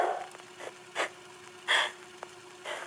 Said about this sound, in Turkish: Evde beni takip eden nefes bir an olsun durmuyor.